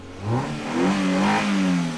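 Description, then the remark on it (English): A car engine revs loudly, its pitch climbing and dipping in a couple of throaty surges over two seconds, with no voices. “Let's rev it up.”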